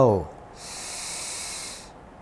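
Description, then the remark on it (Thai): A brief voice fades out, then a long, steady hiss of air drawn in through the nose fills about a second and a half before stopping, moderately loud; an in-breath in a guided breathing exercise chanting Buddho, Dhammo, Sangho. “หายใจออก หายใจเข้า”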